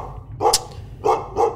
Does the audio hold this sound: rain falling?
no